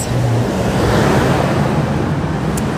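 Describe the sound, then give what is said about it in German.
A bus rumbles past outdoors, a loud steady roar of engine and road noise with wind buffeting, and no one speaking. “Kommt gerade ein Bus.”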